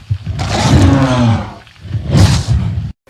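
A bear roars twice, loudly: a long, rumbling growl followed after a brief pause by a second, shorter roar, with no talking.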